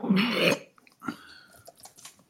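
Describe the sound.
A person vocally imitates the harsh, rattling throat-clearing a man made when lifted, one loud gravelly burst lasting about half a second, followed by quieter, indistinct vocal murmuring.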